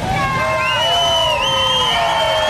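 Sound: audience cheering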